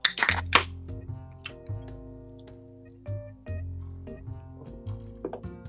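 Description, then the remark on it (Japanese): Drinking glasses clink together in a Friday-evening toast, with a quick burst of bright chimes at the start. Scattered lighter taps follow over a steady, humming tonal background. “はい、じゃあ早速お手を拝借せーの乾杯。”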